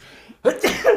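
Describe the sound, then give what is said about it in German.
A sudden, loud sneeze bursts out after a brief quiet moment, a sharp, breathy explosion with a couple of follow-up gusts, and no talking. “Gesundheit.”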